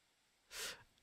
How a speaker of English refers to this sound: Uh, oh, bless you.